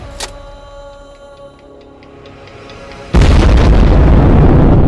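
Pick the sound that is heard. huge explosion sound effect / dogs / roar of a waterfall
huge explosion sound effect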